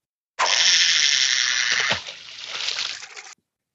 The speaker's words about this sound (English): Oh, bourbon's involved? Well, pour me a double then and let's get this party started.